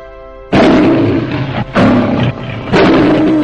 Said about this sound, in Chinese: 就在小公狮子以为自己跑不动的时候，一阵熟悉的狮吼声从远处的狮群里传来